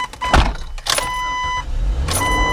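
A car door shuts with a solid thud, followed by further clunks and a steady electronic chime tone from inside the vehicle, the beeping the car makes when its door is opened; no one speaks.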